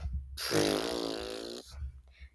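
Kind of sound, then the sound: vocal imitation, imitated snoring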